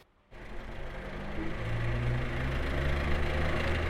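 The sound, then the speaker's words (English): A car engine starts up abruptly and settles into a steady idle in Kajaran, Armenia, its low rumble humming continuously with a faint mechanical knock and vibration underneath. No one speaks. “Our car stops in Kajaran.”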